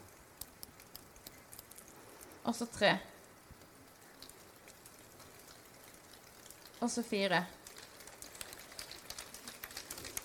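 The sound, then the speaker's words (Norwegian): A soft, steady patter of a standing group clapping two fingers together, imitating falling rain, continues throughout while a voice speaks briefly twice over it. “Hører du regnet?”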